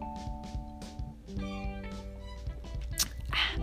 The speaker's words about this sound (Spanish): Ay, voy a tomar. Dije que no iba a tomar otro trago de la Caribe, pero creo que voy a tomarme otro.